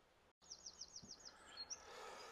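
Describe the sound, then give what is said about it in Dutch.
A bird sings outdoors on a day above 20 degrees with a pleasant breeze, in a quick series of rising, repeated chirps, followed by a few brighter notes over a soft, steady background hiss of open air. “ondanks dat het nog steeds wel dat is de, over de 20 graden hier is en een lekker windje staat en de vogeltjes ons eh, toezingen.”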